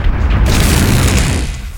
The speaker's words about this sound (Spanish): El chabón se vuelve loco y pega un disparo. El perro muere, pero el ascensor también